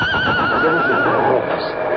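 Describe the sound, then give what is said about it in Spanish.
A horse neighs loudly during a sandstorm, a long wavering whinny that fills the two seconds, with a rushing noise underneath. “Dame las bridas de tu caballo.”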